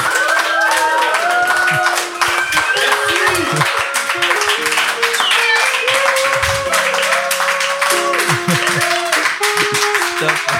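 A large audience claps loudly and continuously for about ten seconds, a dense, steady wash of applause with scattered voices and whoops rising from the crowd.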